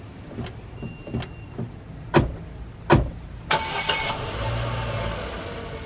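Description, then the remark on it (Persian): Car doors of a large, stylish car thump shut a few times, then its engine cranks and starts, settling into a steady running rumble as the car pulls away for a drive. No one speaks. “دوست داری با هم با ماشین یه گشتی بزنیم؟”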